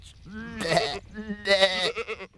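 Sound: goat bleating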